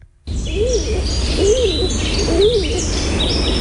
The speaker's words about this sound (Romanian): E porumbel de scorbură. Ce e asta? Porumbel de scorbură. Să știi că face la fel ca porumbelul de pervaz.